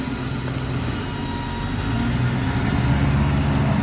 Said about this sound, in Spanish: El chofer le abre la puerta. Philip sube al coche. El chofer también sube. El coche avanza y pasa junto a Angela.